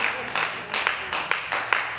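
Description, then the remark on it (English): A crowd claps together in a steady, fairly quick rhythm, the sharp hand claps landing in regular beats, moderately loud. “And because you do good, and let's say, hey, you did good, someone says something crazy about you, and you return it with love, clap that up.”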